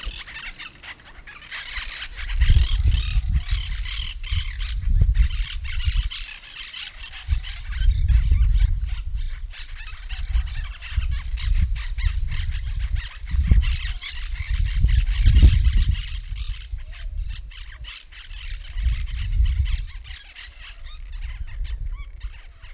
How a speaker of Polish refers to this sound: Koncert zielonych papóżek zalewa ciszę, która wisi nad asfaltem krajówki. Papuszki nie śpiewają. One wrzeszczą, a ich wrzask ogarnia. Zdaje się dobiegać ze wszystkich stron naraz. To taki prysznic głosowy. Nieprawdopodobny. Wspaniały.